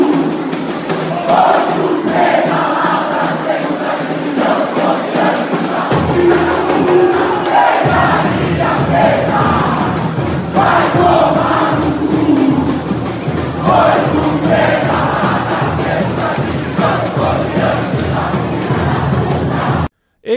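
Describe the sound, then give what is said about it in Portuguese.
A large crowd of Santos FC football supporters chants together in unison 'Galinha Preta, vai tomar no cu', a taunt at Corinthians supporters, a loud, continuous sung chant with rhythmic phrasing that fills the whole stretch before cutting off abruptly at the end. “O Som das Torcidas #199 Santos FC”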